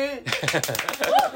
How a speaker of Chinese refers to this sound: 拍手。